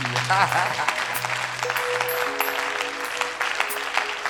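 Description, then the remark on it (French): A crowd acclaims God with loud, steady applause and scattered cheers and whoops filling the whole stretch, a dense crackle of many hands clapping without pause, with a few sustained tones humming underneath. “On acclame Dieu pour son sourire.”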